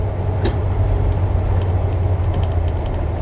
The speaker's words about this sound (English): Man, there's fucking cones all in the road, and I'm driving this big ass truck.